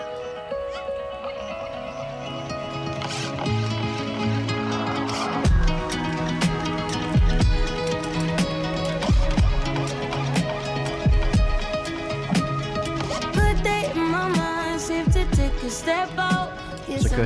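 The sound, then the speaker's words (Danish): Dense, layered guitar feedback drones and howls in sustained overlapping tones, joined by sharp percussive hits from about five seconds in, forming a loud, continuous wall of music with no voices. “sange ligesom bare oven på det her, det her guitars øh, rundgang, ikke?”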